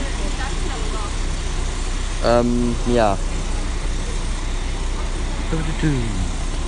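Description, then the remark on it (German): A steady low rumble of road traffic and idling engines fills the background at Bonn Hauptbahnhof (main train station) in the early morning, around 7:20, with a man speaking a few brief words over it. “So, jetzt bin ich am Bahnhof in Bonn und ähm, genau.”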